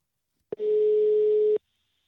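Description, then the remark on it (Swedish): A single steady telephone ringback tone sounds for about a second, preceded by a short click, clear with no voices, as a phone call is placed to an ice hockey goalkeeper. “ena målvakt ska vi ta och ringa. Ja, vi provar.”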